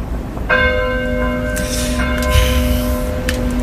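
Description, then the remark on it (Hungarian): A church bell of Szeged Cathedral rings out with a sustained, shimmering tone, its strong harmonic overtones lingering while fresh strikes add bright clangs, loud and resonant with a low rumble underneath and no voices. “Mondjuk a Balatonon nem, mert ez pont a Szegedi Domnak a jó, hangja.”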